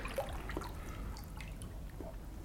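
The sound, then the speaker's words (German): Water dripping in irregular, scattered drops over a soft, steady wash of running water, fairly quiet, with no voices. “Sie kühlten ihren Körper, spülten das Salz von der Haut und aus den eiternden Wunden. Einfach Wasser.”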